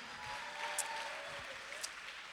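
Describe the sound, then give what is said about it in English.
Soft, steady clapping from an audience in a church, a dense wash of many hands with no talking, marked by a couple of brief brighter bursts as it carries on. “That's enough clapping for now.”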